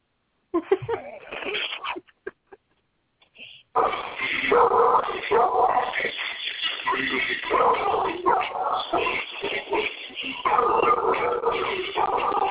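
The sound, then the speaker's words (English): A few short dog yips and whimpers, a brief pause, then a loud, continuous song built from barks and howls plays to the end, sounding tinny and lo-fi. “World premiere, Bouncy's, Bouncy song. Here it goes. It's uh, ….”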